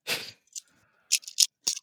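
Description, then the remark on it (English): A twenty-sided die is rolled on a table to decide who goes first: a brief rattling scrape, then several sharp clicks spaced unevenly as it bounces and settles, with no voices. “Does everybody have a dice? What? What? What? Pick a dice up. 20 sided. Give me a roll.”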